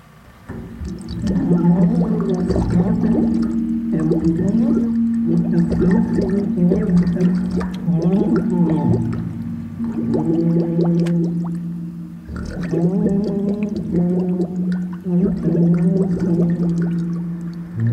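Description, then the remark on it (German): As an experiment, a muffled, gurgling voice sings and talks underwater, the tones wobbling through bubbly water noise, continuous and fairly loud with one brief break midway. “Experiment Nummer zwei. Singen und sprechen unter Wasser.”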